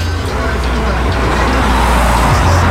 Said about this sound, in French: Un taxi est prêt à partir. J'ouvre la porte, m'assois, salue les passagers. Bizarre cette petite voiture à 5 places.